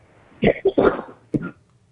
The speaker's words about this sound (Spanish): Oye, necesitas algo para esa tos, mujer.